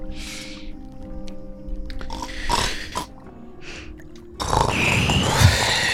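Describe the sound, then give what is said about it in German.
A voice imitates the deep snoring of the character Torwalsch, heard across a whole ship at night: a few rough, rasping breaths over a low rumbling drone, fairly loud, ending in a longer noisy, throaty exhale. “Und nach wenigen Minuten, Aldorin, hörst du über das ganze Schiff verteilt Torwalsch tiefes Schnarchen.”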